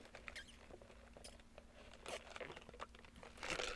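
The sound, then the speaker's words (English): Quiet slurping of bubble tea through a straw, with irregular crackly sucking bursts and bubbly gurgles that grow a little louder toward the end, drawing up a tapioca ball; no one speaks. “Let me take a sip cuz I'm thirsty.”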